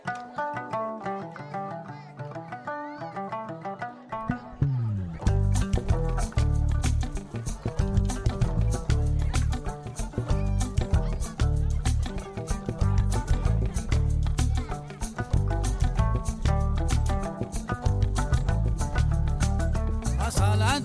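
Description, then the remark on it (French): A gnawa music track with a soft melodic intro that swells after a few seconds into a full, loud groove with deep bass and steady rhythmic percussion, playing continuously with no talking. “je vous propose d'introduire cette émission en musique avec … et le titre …”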